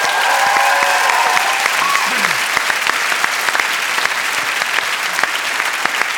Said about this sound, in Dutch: En daarom applaus voor de stembanden van Leonard Korovits.